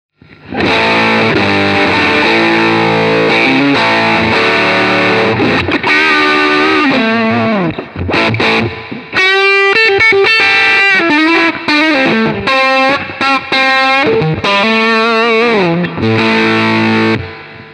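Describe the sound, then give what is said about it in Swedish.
Heavily distorted electric guitar played through stacked overdrive pedals, a Dream pedal with a Red Lemon pedal, with gain on the amp; thick sustained chords giving way to quick bending lead runs, loud and continuous with no talking. “Ja, men det, så att den, den funkar väldigt bra också när det är liksom gain på starken så att säga.”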